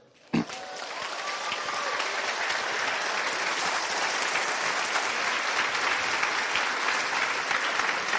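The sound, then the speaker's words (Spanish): A crowd breaks into sustained applause that starts abruptly and holds steady at full strength for several seconds, dense clapping with no one speaking. “Entonces, date un aplauso por eso.”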